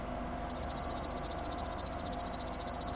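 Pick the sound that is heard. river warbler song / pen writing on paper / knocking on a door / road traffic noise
river warbler song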